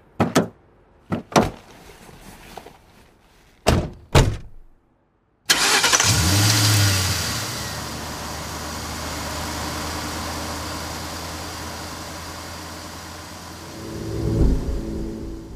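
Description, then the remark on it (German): Several sharp door thuds and clunks, a brief pause, then a car engine turns over and settles into a steady rumble that carries on, swelling briefly near the end as the car pulls off. “Nick schaut dem wegfahrenden Auto nachdenklich hinterher.”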